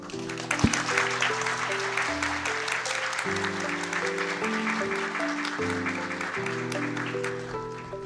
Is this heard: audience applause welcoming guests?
yes